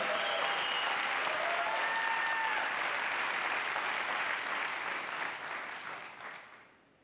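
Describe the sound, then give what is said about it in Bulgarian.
Audience applause in a church, including from the balcony: a dense, steady wash of many hands clapping that holds strong for several seconds, then gradually thins and fades out toward the end, with a few faint whistles or voices mixed in. “Начина по който ръкопляската на балкона ми показва, че не знаете какво означава провидение.”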